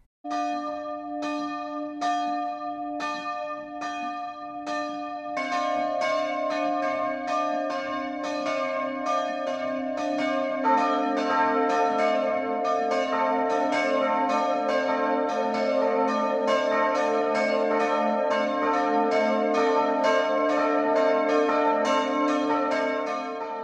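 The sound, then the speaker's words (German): The three bells of the Protestant church in Dornheim, a village in Kitzingen district, Lower Franconia, Germany, ring the noon peal: a single bell swings alone at first, then a second and third join in, their overlapping tones ringing loud and continuous with no voices. “Es sind die drei Glocken der evangelischen Kirche von Dornheim, die jetzt zu hören sind.”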